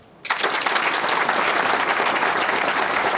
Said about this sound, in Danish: vil jeg lige i første omgang høre en applaus. Er der nogen af jer blandt publikum, som kender udtrykket, det er op ad bakke?